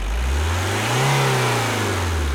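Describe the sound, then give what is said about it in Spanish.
A car engine revs hard, its loud growl climbing in pitch to a peak and then easing back down, with no one talking over it. “A ver, aceleralo un poquito.”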